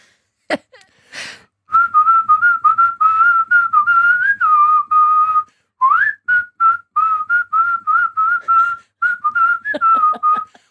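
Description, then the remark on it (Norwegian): A person whistles a pop tune live, a clear steady melody of short and held notes with brief breaths between phrases, opened by a couple of quick clicks. “Jeg skal selvfølgelig plystre, eh, og, så det skal jeg gjøre live nå.”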